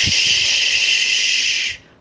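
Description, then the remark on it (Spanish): Rain begins to fall as a steady, bright hiss of fine drops, holding at an even loudness for nearly two seconds before cutting off abruptly, with no voices. “En el campo hay una cabañita con el techo rojo, paredes rojas, postigos rojos y puerta roja empieza a llover.”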